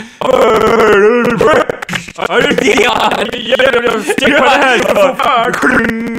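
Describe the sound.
A voice imitates how their microphone sounds when it goes wrong: a continuous warbling vocal tone with wavering pitch and buzzy harmonics, held loud for several seconds with only brief breaks.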